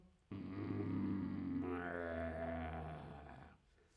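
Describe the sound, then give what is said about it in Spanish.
A dog's low, rumbling growl held steadily for about three seconds, fairly loud, with no other sounds around it. “Un gruñido.”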